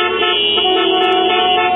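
A loud, sustained car horn blares continuously for nearly two seconds, a steady honk with a bright, buzzing tone and no pauses, with nothing else audible.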